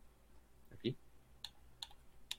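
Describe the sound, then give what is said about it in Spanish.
Four short, sharp plastic clicks spaced unevenly over a couple of seconds, crisp, of a game controller's D-pad being pressed, with faint room noise underneath. “Y el clickness, eh, la manera que hace click el D-pad es bastante más, más sólida y me gusta bastante cómo está.”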